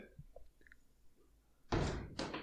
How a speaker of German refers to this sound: Achso, die, die, die Tür wieder. die Tür. ah, ihr wisst doch, was das ist. Der, die komische Tür von dir. Ja. Da wird wieder geknarzt.